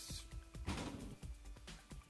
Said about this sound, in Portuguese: E aí o vento bateu a porta ali, gente.